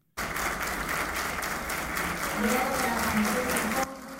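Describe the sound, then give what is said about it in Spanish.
Members of the Dominican Federation of Merchants applaud the president steadily, a dense wash of many hands clapping at an even, loud level for several seconds before cutting off abruptly, with faint voices murmuring underneath. “En este escenario, la Federación Dominicana de Comerciantes, con aplausos, le externó al presidente su total respaldo a su política migratoria.”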